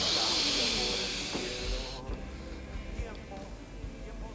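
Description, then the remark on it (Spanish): A slow, deep breath in a yoga breathing demonstration, a strong airy hiss for about two seconds that then fades into quiet as the breath is held. “Y, está todo basado en la respiración.”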